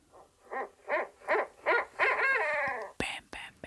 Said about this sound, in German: Die ESO-Eule. Hör mal, die klingt hier aber auch wirklich, Entschuldigung, aber das ist doch ein rammelnder Uhu, hör mal.